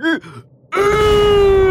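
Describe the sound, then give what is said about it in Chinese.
A voice imitates a huge, loud, super smelly burp by the story character Captain Gege Dog after eating a whole pot of smelly food: after a short vocal cry and a brief pause, a long, steady, rough belch-like tone with a deep rumbling underneath holds to the end. “兔子可可和克鲁鲁刚刚抓住格格狗船长的手，格格狗船长就打了一个超级大、超级臭的嗝，一股巨大的力量从格格狗船长的嘴里喷出”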